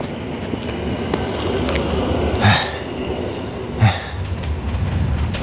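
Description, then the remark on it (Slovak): Steady rumble of an international Regional Express train standing at a station platform, with two brief thumping bursts like doors or couplings, busy ambient noise throughout and no clear voices. “medzištátny vlak Regional Express smer Devínska Nová Ves, Marchek a Vín Halpánho stojí pri”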